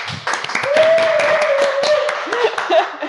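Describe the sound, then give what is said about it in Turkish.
Steady applause from a group fills the moment, dense and fairly loud, with a voice or two briefly rising over the clapping near the end. “Bir alkış alalım.”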